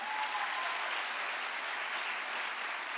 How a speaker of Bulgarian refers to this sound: Сега можеш да ръкопляскаш, ако вярваш.